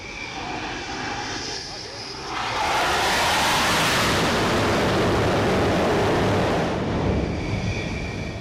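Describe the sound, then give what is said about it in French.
A jet fighter comes in to land on the deck of the aircraft carrier Charles de Gaulle at sea, its engine roar surging up loud for about four seconds before dropping back to a steady windy, sea-swept rumble. “Là, il est déjà un peu plus bas sur le plan que tout à l'heure.”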